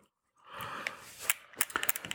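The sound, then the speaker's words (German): Camera lens aperture blades closing down to f/22: a soft mechanical whirr followed by a quick run of small, sharp clicks and ticks, fairly quiet, with no voices. “Dann hörst du hier, wie die Blende ah. zugemacht wird.”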